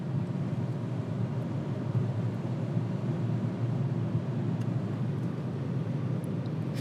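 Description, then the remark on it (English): Steady low rumble of a car's engine and tires on the road, heard from inside the cabin as the car drives with cruise control set at seventy, a constant, even drone with no voices or breaks throughout. “Let me let me set the cruise control.”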